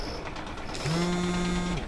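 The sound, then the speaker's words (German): An old portable telephone rings from beneath a moving box in an office, a single low, buzzy electronic tone lasting about a second, steady in pitch, starting abruptly over a faint background hiss and cutting off cleanly. “Das ist eins dieser alten Telefone zum Mitnehmen.”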